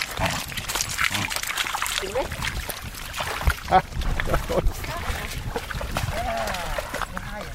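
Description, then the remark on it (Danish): A dog, Charlie, snuffles, grunts and chews while playing with a stick it has fetched in shallow water, with steady splashing and trickling throughout and brief whiny vocal sounds near the end. “nu har den, den har jo hentet den pind en gang kan det jo blive ved med at være sjov.”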